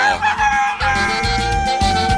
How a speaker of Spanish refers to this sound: ¡Suena el gallo!